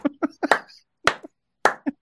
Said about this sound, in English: That's a gets a golf clap. My God, okay.